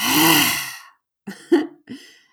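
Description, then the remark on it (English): A forceful, drawn-out breathy exhale with a raspy, voiced edge, a yoga lion's breath done after a deep inhale with the tongue out, followed by three short, quieter huffs of breath. “So you let out your tongue and you make a funny face and you roar.”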